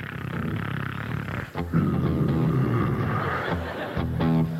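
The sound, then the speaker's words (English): A voice imitates a woman's loud snoring, a raspy, growling drone repeated over several breaths with short pauses between them. “And I can hear her snoring.”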